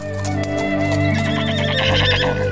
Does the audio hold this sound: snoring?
no